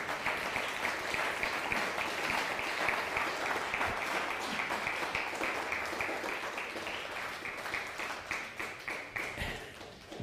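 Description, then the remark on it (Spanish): Steady, dense applause from a crowd marks the end of a reading of a Bible letter. Many hands clap at once in a continuous crackling wash, with a few sharper individual claps standing out near the end. “Dele un fuerte aplauso porque hemos terminado.”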